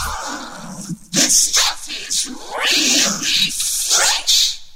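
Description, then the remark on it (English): A vocoded robotic voice sample taken from the last three seconds of a hip-hop track, scratched back and forth on a record, loud warbling, whining bursts that stutter and sweep in pitch, with no other sounds around it. “…'s … has been sampled tens of thousands of times, though not for the melody”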